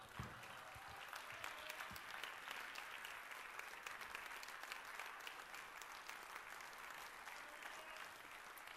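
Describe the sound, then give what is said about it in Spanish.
A standing audience at a church service applauds the Lord steadily, a dense wash of many hands clapping at a constant, fairly loud level for the whole stretch, with no voices standing out. “Y le da un fuerte aplauso al Señor en esto.”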